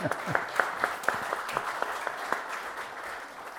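An audience claps steadily, many hands blending into a dense patter with sharper individual claps popping out, holding fairly even before easing slightly toward the end.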